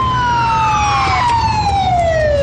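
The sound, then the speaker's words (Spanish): A loud police siren wails in a long, slowly falling tone over a steady rumble of engines and road noise as police cars skid up to a street, with no voices. “Unos coches de policía llegan derrapando hasta la calle.”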